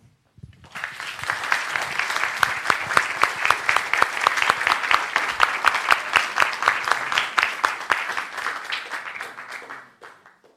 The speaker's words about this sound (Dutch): Dank je wel. Ik ben blij dat je zo'n warm applaus hebt gekregen voor de donkere verhalen die je verteld hebt.